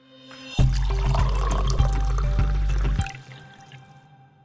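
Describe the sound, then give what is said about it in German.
Cool water is poured steadily into a glass in a studio for about two seconds, a continuous splashing gurgle that stops abruptly and leaves a faint ringing tail. No voices. “Ich trinke hier im Studio kühles Wasser.”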